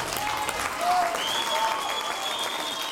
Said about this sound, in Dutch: Ja, het applaus sterft weg.